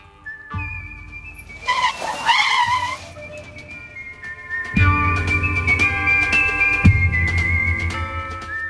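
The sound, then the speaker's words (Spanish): A red Lamborghini sports car, the latest model running on solar energy, rumbles, then tires let out a sharp, wavering squeal as it skids to a stop in front of a saloon door beside a small horse trough, followed by the engine idling steadily with a brief rev. “A los pocos minutos, junto a un pequeño abrevadero de caballos, aparca delante de la puerta del salón un Lamborghini rojo, el último modelo que funciona con energía solar.”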